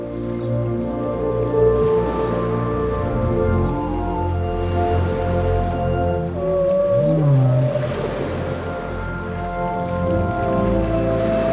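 Whale song fills the deep ocean water: long, low droning moans layered with harmonics, then a swooping call that bends up and down midway, all over a steady wash of underwater hiss.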